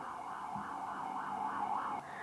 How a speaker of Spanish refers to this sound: Eh, ahí va una ambulancia, se va a escuchar mucho ruido de fondo porque este barrio es un barrio muy pesado. Entonces, va a haber ruido de fondo, aceptemos que va a haber ruido de fondo, dejemos que suceda el momento de la ambulancia.